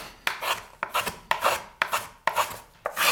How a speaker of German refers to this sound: Und man hört ganz schön am Hobel den Faserverlauf des Holzes.